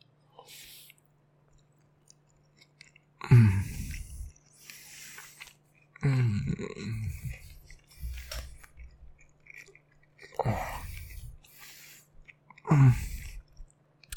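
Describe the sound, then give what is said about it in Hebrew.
Wet chewing with the mouth shut, coming in four bursts of squishy mastication separated by short quiet gaps, with soft smacking and a steady low hum underneath. “וזה כאילו אני לועס עם פה סגור, שתבין, מה אתה יודע?”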